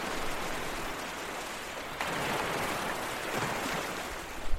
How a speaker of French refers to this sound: Et après le bruit des vagues et le clapotis de l'eau